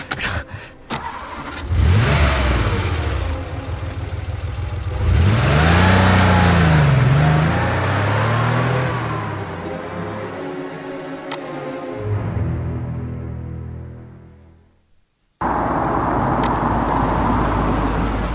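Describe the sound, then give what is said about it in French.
A car engine cranks and starts, then revs up in rising sweeps as the vehicle pulls away and drives off, the motor noise loud before fading, with no one talking. “Viens avec moi, dans la voiture.”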